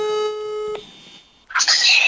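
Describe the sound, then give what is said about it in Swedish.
A steady electronic ringback tone of an outgoing phone call plays for under a second, shifts briefly to a higher beep, then gives way to a crackly, muffled voice answering from a toilet. “innan vi började podda i alla fall så tänkte jag att jag ringer …”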